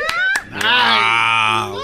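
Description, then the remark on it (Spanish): A woman, a Mexican former teacher from Oaxaca, lets out a loud, sustained, high-pitched scream of excitement, held for over a second, just after a few sharp clap-like smacks, reacting as her name is announced as an Oscar nominee. “Ella grita de emoción.”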